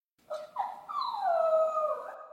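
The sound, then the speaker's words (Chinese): A puppy whimpers: two short, high yips followed by a long, wavering whine that dips in pitch and then rises again at the end. The sound is fairly loud, and no one speaks. “这天晚上，小弯梦到了小狗。”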